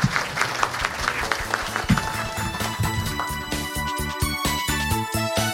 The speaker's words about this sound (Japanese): どうぞ大きな拍手をお願いいたします